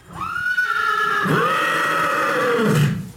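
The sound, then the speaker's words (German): A tiger-spotted stallion, a brewery carriage horse, whinnies loudly, a long, shrill neigh with harmonic wavering that drops and rises again before fading, with no talking over it. “und ich habe jetzt die zwei neuen Tigerhengsten”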